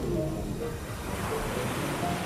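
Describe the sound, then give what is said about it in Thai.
Ocean waves wash steadily onto the shore in a continuous, broad hiss of surf with a low rumble underneath, loud and even throughout, with no voices present. “วันหนึ่งที่ท้องทะเลอันกว้างใหญ่คลื่นทะเลลูกแล้วลูกเล่า ได้ซัดเข้าหาชายฝั่ง”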